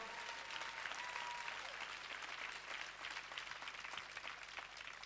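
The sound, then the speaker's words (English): An audience claps steadily for several seconds, a dense, crackling wash of many hands with no pauses, holding at a fairly even loudness throughout. “Clap your hands if you believe.”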